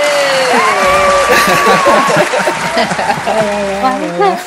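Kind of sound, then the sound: crowd, applause welcoming a guest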